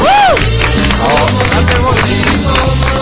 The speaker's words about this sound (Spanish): bravo, bravo, bravo. Bueno. Bueno, un aplauso al técnico,